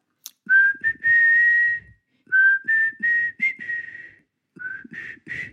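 Someone whistles a slow, tuneful melody, with sustained notes and short pauses between phrases, clear and fairly loud with no talking.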